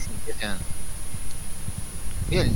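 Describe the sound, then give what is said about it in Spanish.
Steady, muffled low thumps pulse in a regular heartbeat rhythm throughout, a heartbeat in a film scene's soundtrack that then fades out, with brief snatches of voices rising over them near the start and end. “¿Vieron, cómo se apagó recién, Los latidos. Los latidos que son lo que más se escucha.”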